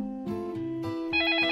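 A telephone rings with a steady electronic tone that steps through a few pitches, growing brighter and louder toward the end, with no voices.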